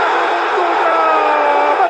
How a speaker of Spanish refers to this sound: Lo gritaron como un gol. Tapó Navarro Montoya.